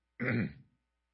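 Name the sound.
cough and throat clearing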